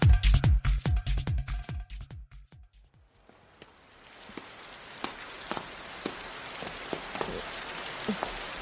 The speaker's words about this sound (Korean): 갑자기 웬 비? 소나기인가?